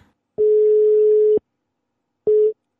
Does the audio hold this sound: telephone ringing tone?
yes